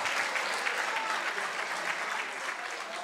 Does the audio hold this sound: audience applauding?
yes